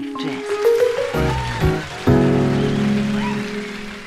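Steady rain hisses in the background while sustained tonal music, including reed-like melodic notes, plays loudly over it throughout.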